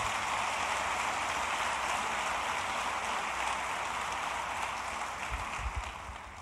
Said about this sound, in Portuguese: E a igreja diz: aplauda Jesus nessa manhã, por favor.